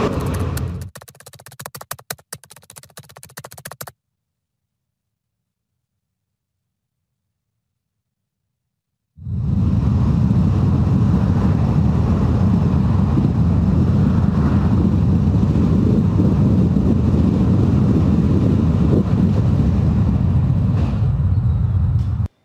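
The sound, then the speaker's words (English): A brief burst of noise cuts to silence, then a Tesla car's steady, loud low rumble of engine and road noise runs continuously and unbroken, with no voices, with Tesla investor Ross Gerber behind the wheel. “Joining us now are the two people who were in that car in the video Ross Gerber, Gerber Kawasaki president and CEO.”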